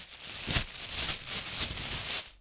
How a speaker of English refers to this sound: First off, those thin plastic bags that you were given at grocery stores for years. You might have used them to line your bathroom trash can. They sound like this.